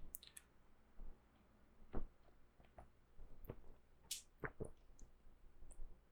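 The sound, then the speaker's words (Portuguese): Someone quietly sips a little water, with a handful of soft wet clicks and gulps spaced irregularly over a few seconds, and no talking. “Deixa eu beber um golinho de água aqui.”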